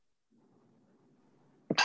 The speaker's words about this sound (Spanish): Ay, me dio la estornuda.